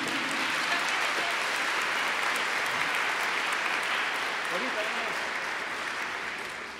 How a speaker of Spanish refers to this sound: Los conciertos ayudan, los recitales ayudan, pero la Santa Misa es el mega evento. Un aplauso para nuestro mega evento.